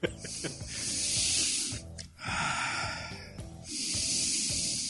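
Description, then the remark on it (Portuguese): Loud deep breathing: long, airy rushes of breath, mostly exhaling, in roughly three drawn-out stretches with short pauses between them. No talking. “aqui é …, respirando fundo, né?”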